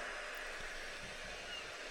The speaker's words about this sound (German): Hörst du das Meer im Hintergrund? Hörst du die Möwen?